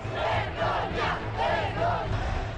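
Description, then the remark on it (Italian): A large crowd of hundreds of people, still growing, shouts and chants together in front of the Hotel Rafael at Largo Febo 2 in Rome, on Friday 30 April 1993 at 19:30. A dense, continuous roar of many raised voices with rhythmic swells of louder yelling rising and falling every second or so. “Di fronte all'hotel Rafael ci sono già centinaia di persone e la folla continua a crescere.”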